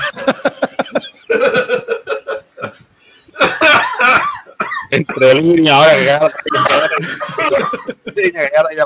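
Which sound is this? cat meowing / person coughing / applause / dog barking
person coughing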